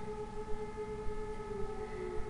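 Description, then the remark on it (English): A steady, sustained siren tone holds for the whole moment over a low rumbling background, heard from a hotel room in Austria, with no voices present. “Yeah, so we are in Austria right now in a hotel room, and I don't know what siren this is,”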